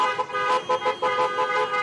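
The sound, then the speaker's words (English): Several car horns honk together from a caravan of Trump supporters' cars and trucks in traffic, a steady, overlapping blare with short pulses rising and falling. No one speaks. “No wonder there's so much traffic.”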